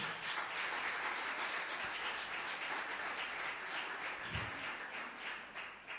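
An audience applauds for the Lord during a sermon, many hands clapping steadily for several seconds in a dense, continuous wash of sound that stays fairly even throughout, with no voices rising above it.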